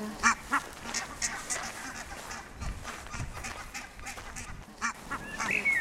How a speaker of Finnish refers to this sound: Täällä on hanhet tullut jo sitten. ne ei pelkää yhtään. Niin. Päinvastoin. Ei näköjään.